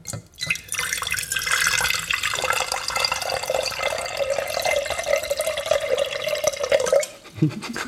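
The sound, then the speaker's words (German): Water pours steadily from a tap into a bathroom cleaning bucket, a continuous splashing gurgle whose pitch slowly rises as the container fills, then the flow cuts off abruptly near the end. “Und ähm, jetzt hast du ja eine Ahnung davon, wie lang es so, so, so plätschert bis 200.”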